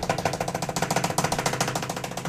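A rapid, improvised analog drum roll made by the sound engineer as a sound effect, with fast, even beats rattling along steadily for a couple of seconds, fairly loud, with no voices.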